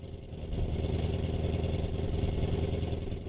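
A diesel car engine idles steadily and close by, a low, rumbling, continuous drone that rises slightly in loudness after the first half second and then holds even, with no voices.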